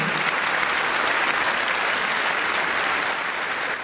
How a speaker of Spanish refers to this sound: Bueno, se ganó los aplausos Michelle Bachelet con esa definición de lo que debe, buscar eh, una nueva constitución para modernizar la democracia.